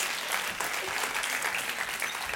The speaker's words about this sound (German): Genau, geben wir Ihnen noch einen herzlichen Applaus.